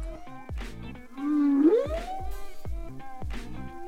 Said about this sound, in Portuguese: e tem uma camada ali na superfície da água que atenua sons que estão sendo produzidos dentro da água. Então, se alguém realmente quiser ouvir uma baleia, tem que se enfiar no mar, tem que mergulhar um pouquinho mais profundo.